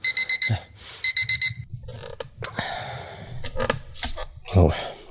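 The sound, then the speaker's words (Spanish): An electronic alarm clock beeps loudly in two quick bursts of four high tones, followed by rustling, shuffling sounds and a low groan. “Menos mal que solo es un despertador.”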